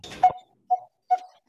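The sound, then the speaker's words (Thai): A coppersmith barbet calls a series of hollow, metallic 'pong' notes at a steady, unhurried pace, fairly clear, with no one speaking. “อันนี้คือเสียงนกตีทองนะคะ จริงๆ มันเป็นแบ็กกราวน์นอยส์ในเมืองเลยนะอืมแบบตอนแรกเราไม่เคยสังเกต เลย แต่พอแบบฟังดีๆเวลาแบบ เออ ถ้าถ้าตรงไหนที่เริ่มมีต้นไม้หน่อยอะไรอย่างเงี้ย ลองฟังดูมันจะมีเสียงนี้เป็นแบ็กกราวน์นอยส์ที่เราไม่เคยสังเกตมาก่อน”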